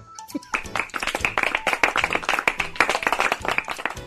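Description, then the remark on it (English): A brief round of light, scattered hand clapping from a small group, steady for a few seconds, polite rather than enthusiastic, with no one talking over it. “I only get the polite golf clap?”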